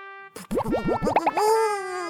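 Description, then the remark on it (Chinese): A long, loud cartoon-style fart sound effect from the hedgehog character A Dou in a children's story, its pitch wobbling up and down in quick bouncy bursts before stretching into a steady, drawn-out buzzing tone, with no talking. “刺猬阿兜突然放了一个非常长、非常响的屁。”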